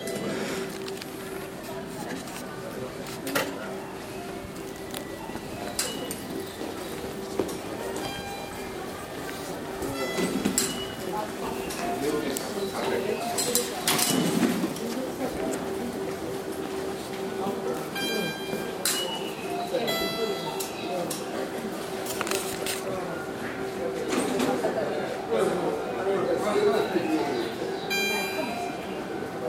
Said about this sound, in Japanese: あの切符切りの音だと思うんですよそれをあの自動改札の機械が出すんですねなかなかいい風情でちょっと録音して見ております